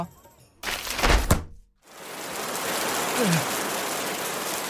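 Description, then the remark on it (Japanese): An umbrella, an invention made to rain inside itself, snaps open with a brief rushing whoosh and thunk, a moment of quiet follows, then a steady hiss of rain pours down inside the opened umbrella and continues to the end. “ほら見て広げた傘の中に雨が降るっていういやいや濡れてるしなんでこんなの作ったん全く何の意味もない発明”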